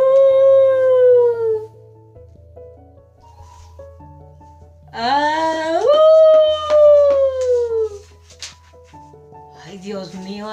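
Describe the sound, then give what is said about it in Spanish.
Long, mournful wolf howls rise and fall over a low, droning background: a single falling howl first, then after a pause a fuller, louder howl that swells upward before slowly trailing off. “Y ya como se oía por las tardes y por las noches tronidos en esa casa y los gritos de lobos.”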